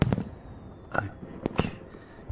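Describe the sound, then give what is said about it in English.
Fireworks go off in a quick irregular series of sharp bangs and pops, each burst leaving a brief crackling tail, with no one talking. “I love fireworks.”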